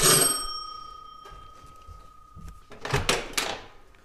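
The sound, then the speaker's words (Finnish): A bright bell-like ring sustains and slowly fades, then the main door of the yellow wooden main building of Kiela manor opens with a few clunks and rustling, as someone steps inside. “Kielan kartanon pääovesta, kun astuu sisälle tähän keltaisen puiseen päärakennukseen, niin täältä löytyy sitten Doc Art ja Taiga Films ovi.”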